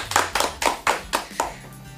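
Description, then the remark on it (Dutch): A small, brief round of applause for a teacher walking in: about six crisp hand claps in a steady, moderately quick rhythm, each sharp and bright, fading slightly toward the end, with no talking. “Geef een klein applaus. Ja, we geven een applaus.”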